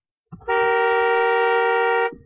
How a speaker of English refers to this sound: Cause look, when I inhale, my titty make the horn honk. Listen. You see that?